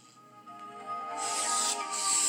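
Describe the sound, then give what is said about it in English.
A steady spray-paint hiss rises about halfway through and grows louder, sitting over a sustained musical tone from a theme song, with no talking. “Look, it's got yeah. spray paint. I hear it.”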